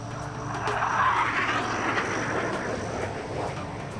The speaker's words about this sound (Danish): Nej, han bliver hentet af et militært transportfly. Der er soldater med, politiets aktionsstyrke, rejseholdet, og så er der et F-16-fly med som eskort.